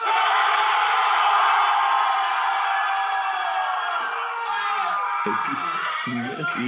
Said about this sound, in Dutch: Iedereen ging schreeuwen voor de energy.